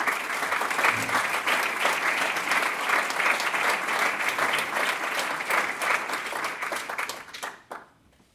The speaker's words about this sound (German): Deswegen ein dickes Dankeschön an Sie, dass Sie das machen und an die Parteien, die Sie aufgestellt haben. Ich glaube, da können wir mal dicke klatschen.